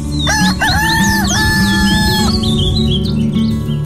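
A rooster lets out one long, loud crow lasting about two seconds, with squawky bird calls around it and a steady low rumble underneath.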